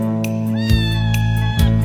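A small tabby cat meows loudly, with long, drawn-out cries that rise and bend in pitch, two strong calls running into one another with no one talking.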